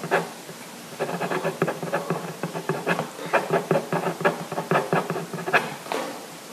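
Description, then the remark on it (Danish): A pen scratches across paper in quick, irregular strokes, writing a signature, a dry scribbling that runs steadily for several seconds with no voices. “Altså, han forfalskede hans skal, underskrift.”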